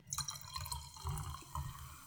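Champagne is poured into a glass up close, a steady gurgling splash with a fizzy high hiss and a few louder glugs along the way. Nobody speaks.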